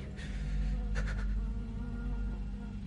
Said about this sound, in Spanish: Natalie tiene avispas en una botella.